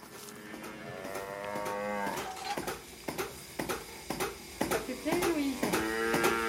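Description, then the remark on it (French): A milking machine pulsator on a dairy farm clicks in a steady, quick rhythm during the milking of cows, about two sharp ticks per second, while cattle moo loudly over a constant barn hum. “C'est quoi le bruit qu'on entend là C'est ce qu'on appelle le pulsateur, c'est parce que la machine, elle fait sur le trion, elle fait comme ça et comme ça.”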